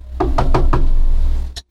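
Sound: knocking on a door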